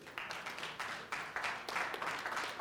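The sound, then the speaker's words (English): Light, scattered applause from an audience, a thin patter of claps that stays fairly quiet and uneven, with no one speaking over it. “Come on, that, you need to clap a little bit better than that.”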